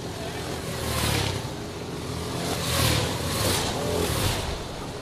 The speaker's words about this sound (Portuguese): É, é um sonzinho que faz até um pouquinho de agudo, para o pessoal ouvir exatamente na hora em que o piloto tira o pé do acelerador para fazer essa, é, o que a gente fala, deixar o kart rolar um pouquinho.